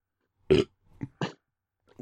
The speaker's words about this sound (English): this is going to be burps all night.